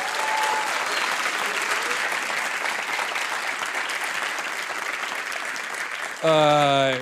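Steady, dense audience applause fills about six seconds at an even loudness, then a short, louder burst of tonal music cuts in at the end.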